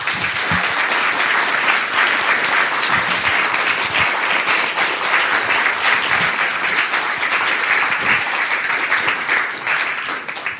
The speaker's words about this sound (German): Ja, ja einmal einen kräftigen Applaus.